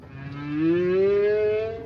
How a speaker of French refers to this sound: Soudain retentit la voix sous-marine tant attendue. Une baleine chante. C'est une baleine à bosse. Des notes graves, hypnotiques.